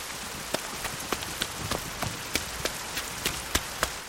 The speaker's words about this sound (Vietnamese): Nhưng... gió bắt đầu thổi mạnh và mưa rơi ào ào.